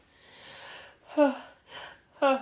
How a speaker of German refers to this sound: Musst du niesen? Gesundheit.